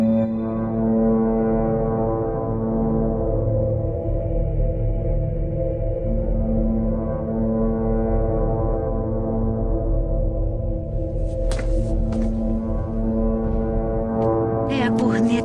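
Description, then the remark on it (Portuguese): A deep, sustained alarm horn is sounded in Asgard, blaring continuously, loud and droning with rich low harmonics, while brief higher bursts of noise flicker in near the end. “Os inimigos de Asgard foram derrotados. Mas mesmo assim, ele tocou o alarme.”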